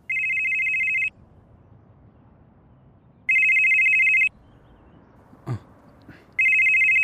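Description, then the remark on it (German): A telephone rings for an incoming call from an unknown number, three loud, steady electronic bursts about a second long, separated by pauses, with a faint rustle in between; no one speaks. “Die Nummer kenne ich nicht.”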